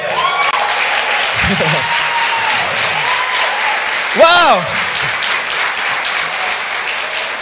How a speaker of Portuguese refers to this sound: Oh, se você crê nisso, aplauda ele.